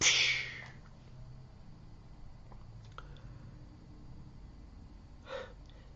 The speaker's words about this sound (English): Can you hear the bus? The bus waiting for kids dropping the hydraulic brakes.